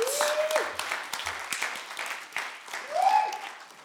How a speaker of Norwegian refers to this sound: Jeg kan gi lovsangen en applaus. Det er de absolutt verdt.